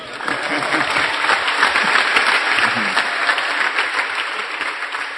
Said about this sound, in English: Let's clap for him.